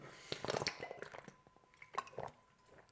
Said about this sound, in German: So, jetzt muss ich mal kurz einen Schluck Wasser trinken.